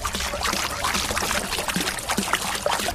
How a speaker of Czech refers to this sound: Tak takhle šplouchá kašna na Nepomuckém náměstí, jeden z jejich dvou chrličů.